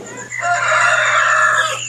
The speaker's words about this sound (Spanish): Yo pensaba que a la una de la mañana los gallos no cantaban, pero pues aquí es diferente. Esta es la vereda Palo Blanco del municipio de Ituango, al norte de Antioquia, uno de los 125 municipios más ricos en café que tiene el departamento.